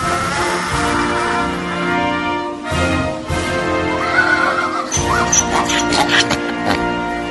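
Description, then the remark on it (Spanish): A donkey brays loudly, in long harsh heehaw cycles that rise and fall for several seconds with brief breaks between the strained honks. “¡Se te quedó la burra!”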